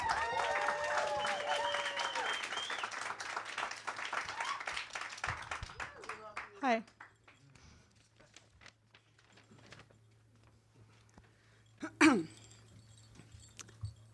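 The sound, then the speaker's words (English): An audience at a poetry reading bursts into applause for the next reader, with scattered cheers and voices, the clapping dense for several seconds before thinning out into quiet with a stray cough. “So give up a big round of applause”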